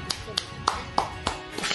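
A steady series of about seven sharp hand claps at an even, unhurried pace, close and moderately loud, with faint background murmur between them.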